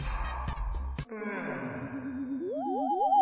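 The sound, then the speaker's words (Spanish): A person fakes a yawn: a breathy intake, then a long voiced 'aah' that swoops upward in pitch several times near the end, with no one talking. “Ahora hace como que vas a bostezar.”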